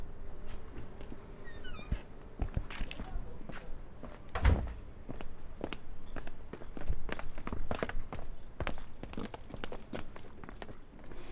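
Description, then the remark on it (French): Footsteps walk steadily on a hard surface into a tunnel of the old quarries at Les Moulineaux, where wine is stored; each step is a crisp thud with a short echo; there is no talking. “Et là, on arrive donc dans le, fameux tunnel que vous évoquiez tout à l'heure.”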